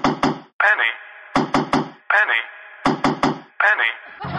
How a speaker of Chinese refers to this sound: 忘不了谢耳朵那魔性的敲门声，每一次一定要节奏均匀的敲三下，少一下都不行。